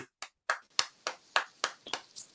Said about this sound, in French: J'applaudis.